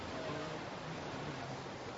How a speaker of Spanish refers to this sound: Y bueno, este es una de las cosas que extraño, es el ruido del mar desde que me vine. Lo que es el silencio con el mar y el silencio sin el mar.